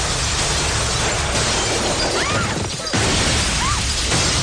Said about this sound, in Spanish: Una explosión sacude la casa. Los cristales saltan hecho añicos.